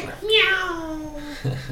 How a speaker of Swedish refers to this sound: Usch, den här katten alltså. Ja, men jag, vet. Vet, jag får inte bort den liksom.